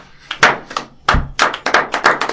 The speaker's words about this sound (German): Können wir mal kurz äh, Applaus äh, machen?